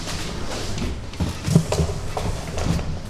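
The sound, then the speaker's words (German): A carrier rushes through the pipe of the pneumatic tube system at the MHH medical school, which runs more than a million times a year, with a steady airy hiss, punctuated by several irregular clacks and knocks as it rattles along, moderately loud, with no talking. “So hört sich die Rohrpost der MHH an.”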